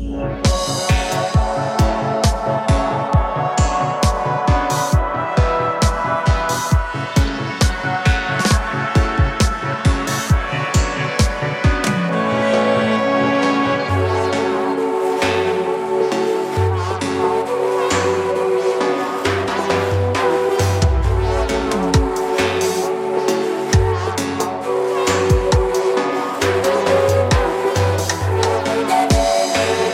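An instrumental dub track plays with no voices: a steady, punchy kick pulse drives the first half, then a deep, rolling bassline and layered synth tones take over, loud and continuous throughout.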